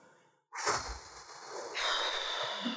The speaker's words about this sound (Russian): Сейчас выдохнем вместе с нашими слушателями весь лишний воздух.